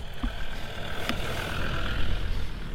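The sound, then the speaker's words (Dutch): An old Land Rover Defender drives along a grass path, its engine running with a steady, low, throaty rumble, continuous, with no voices over it. “Een prachtige Land Rover Defender.”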